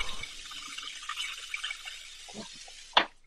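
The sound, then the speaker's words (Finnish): Cold water being poured in a steady, hissing stream, with a few faint splashes and a sharp clink just before it ends. “Panikö sä kylmää vettä sinne Sen? Kylmää vettä kieleen,”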